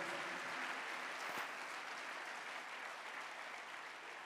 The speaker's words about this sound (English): I've told you that clapping is free. Oh. You don't pay, so you are free to clap if you want to.